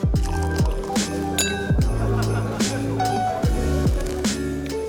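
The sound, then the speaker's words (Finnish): Liquor gurgles and splashes as it's poured from litre bottles into cold glögg, with glasses clinking in a toast in a ship's mess, amid a busy, layered backdrop of repeating, rhythmic swooping sounds that keep the whole scene fairly loud and dense. “Lantraamme aluksi viinaa kylmään klögiin, kilistelemme ja alamme tuhoamaan pulloja, litran pulloja, hyvin määrätietoisesti.”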